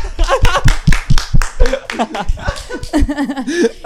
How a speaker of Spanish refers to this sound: Aplauso para acá.